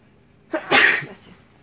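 A single loud sneeze: a brief inhaled catch followed by a sharp, breathy burst that fades quickly, with no talking around it.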